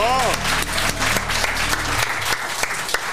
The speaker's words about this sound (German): Klatscht für Salami.